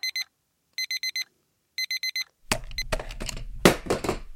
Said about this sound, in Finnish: Herätyskello alkaa soida viiden sekunnin kuluttua. Kannattaa seurata tarkkaan.